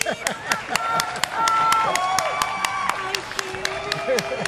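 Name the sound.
applause and cheering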